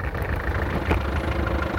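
A taxi engine idles at a London airport, hailed for a ride to Westminster Hall, with a steady, low rumbling hum and faint vibration, holding an even loudness throughout with no voices.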